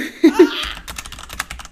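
Rapid, loud clatter of keys on a computer keyboard while searching online, with a brief vocal exclamation or laugh at the start before the typing takes over.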